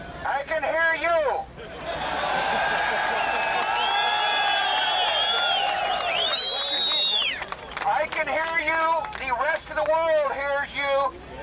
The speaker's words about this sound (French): Il parle depuis quelques minutes déjà et entend la foule lui crier ⁇ Plus fort, Georges, on ne t'entend pas !⁇